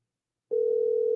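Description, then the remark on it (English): After a brief silence, a steady telephone ringback tone of an unanswered call begins, a single clear, moderately loud electronic hum that holds unbroken to the end, with no voices. “Come on, Nick. Pick up the phone, son. Pick up the phone.”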